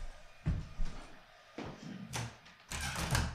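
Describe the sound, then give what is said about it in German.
A window is shut: a few handling knocks and rattles, then a scraping slide and a final clunk as it latches, with no talking. “Ja, ich überlege gerade, ob ich das Fenster, Fenster zu machen.”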